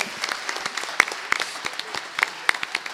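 Audience applause with many hands clapping at once, a steady crackling wash of claps punctuated by a few sharper, louder slaps, sustained evenly for the whole few seconds.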